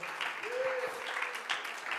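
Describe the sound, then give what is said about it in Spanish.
An audience at a church service applauds for God in a dense, steady wash of clapping that fills the whole stretch, with a brief sustained voice-like tone rising faintly over it partway through. “Bríndale ese aplauso a Él en esta hora con todo tu corazón.”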